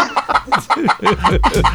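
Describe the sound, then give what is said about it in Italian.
A voice imitates a hen clucking, a quick run of about eight short, throaty bursts in a steady rhythm, fairly loud, with a faint chuckling quality. “Stanno parlando la pecora con la gallina.”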